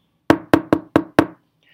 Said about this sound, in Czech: Zaklepal ohnutým ukazováčkem a pan farář se ho zeptal. Proč klepáš, Kájo?